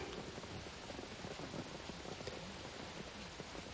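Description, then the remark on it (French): Steady rain patters onto pavement, a dense continuous hiss of countless small drops at a soft, even level, with no voices throughout. “Les yeux comme un barrage brisé je pleure sous la pluie, sur le trottoir, pour tout.”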